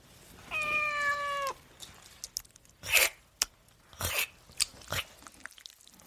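A cat gives one drawn-out, steady meow lasting about a second, then falls quiet apart from a few sharp, crunchy bursts like chewing or biting. No one speaks.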